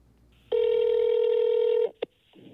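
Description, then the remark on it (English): A phone call rings with one long, steady, loud electronic tone, followed by a quick short beep as the call is sent to voicemail before the line goes quiet, with faint rustling at the end. “I'm gonna I'm gonna send you to voicemail.”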